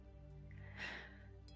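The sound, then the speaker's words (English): A single slow, deep, soft, airy inhale, lengthened as part of a breathing exercise, swelling briefly and then fading, with a faint low hum underneath and no talking. “So breathing in”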